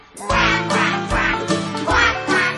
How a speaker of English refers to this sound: But the one little duck with a feather on her back, she led the others with a quack, quack, quack.